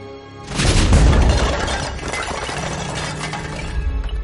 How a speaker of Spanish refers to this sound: Parece que la serpiente se ha hecho gigante y choca contra el cristal de la ventana.